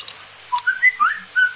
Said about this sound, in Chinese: 嗯，给我听鸟叫是吧？ 喂 啊，给我听鸟叫了。